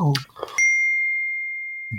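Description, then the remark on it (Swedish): Glasses clink together once in a toast, a bright ringing tone that hangs and slowly fades for over a second, just after a short burst of voices. “Ja, skål, skål. skål på er allihopa.”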